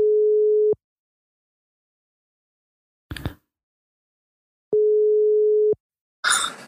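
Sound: telephone ringing tone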